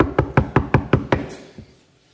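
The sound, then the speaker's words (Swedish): A quick run of six firm, evenly spaced, solid knocks on a door, followed by a softer stray thump before the sound fades out. No voices. “Det knackar en gång till.”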